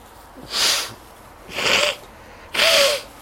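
Three forceful, breathy nose blows at roughly one-second intervals, each a short rushing burst with a faint honking edge, growing slightly stronger toward the last, with no talking.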